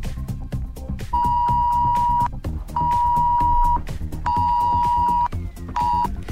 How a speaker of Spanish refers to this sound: Así sonaba la alarma que han recibido en sus teléfonos los ciudadanos de Madrid para recomendar que se quedasen en casa durante la jornada de hoy.